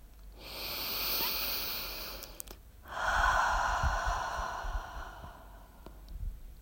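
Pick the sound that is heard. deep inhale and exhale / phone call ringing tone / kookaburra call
deep inhale and exhale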